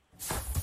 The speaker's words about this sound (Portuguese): O meu palpite é um daqueles chapéus de chuva automáticos a abrir.